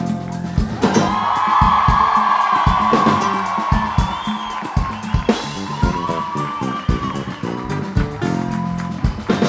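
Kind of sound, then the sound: crowd, audience cheering and applause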